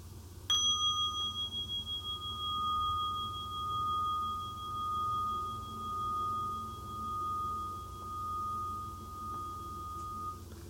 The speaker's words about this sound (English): And each time I invite the, invite the bell, uh, please breathe in and out three times at a normal rate, and we will continue from there. So we'll invite the bell right now, and we'll breathe together.